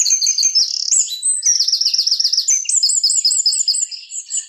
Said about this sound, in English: with minimal talk and maximal, maximal, tuneful and glorious bird song. What a great animal the bird is.